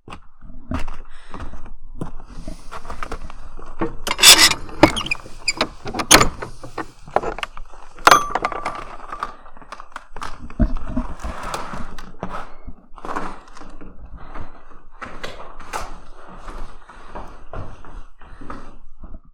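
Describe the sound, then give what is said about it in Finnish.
The old church key of Petäjävesi Old Church clunks and scrapes into the door lock: several sharp metallic knocks and rattles over a quiet background, with no one talking. “Miltä näytti kirkon avain, joka kolahti lukkoon äsken?”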